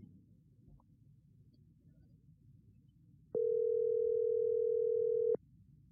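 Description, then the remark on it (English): A single ring of an outgoing phone call: a steady, fairly loud electronic tone lasting about two seconds, heard midway through after quiet line hiss, with no voices. “All right, let's go to the next call. This should be the last one. Hopefully, they pick up this time.”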